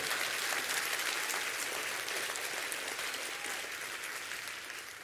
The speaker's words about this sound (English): Clap your hands real big for that because that's good.